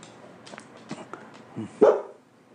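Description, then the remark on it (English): A dog makes a few soft, short yips, then lets out one loud, sharp bark near the end before falling quiet. No one speaks. “that barking that, is what i want to stop”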